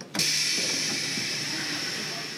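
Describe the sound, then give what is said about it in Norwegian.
A commuter train running from a suburb into Paris during a strike, bound only as far as Paris Austerlitz station: a steady, rushing hiss starts abruptly and carries on loud and unbroken, with a bright high whine over a low rumble and no voices. “Jeg hadde hoppats på at toget skulle gå fram enda til Notre Dame-katedralens stasjon.”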